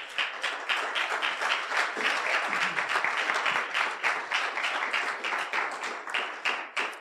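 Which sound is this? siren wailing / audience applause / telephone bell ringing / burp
audience applause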